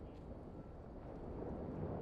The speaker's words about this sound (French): Écoutez, vous pouvez entendre la rumeur des voitures.